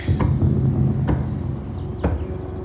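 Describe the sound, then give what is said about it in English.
Three dull knocks on the exterior of a house, heard from the kitchen, sound about a second apart, fairly distinct over a constant low rumble of background noise, with no voices. “I hear a knock.”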